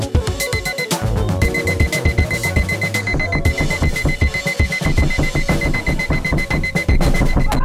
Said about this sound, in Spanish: la alarma va a sonar y va a seguir sonando y sonando y sonando y sonando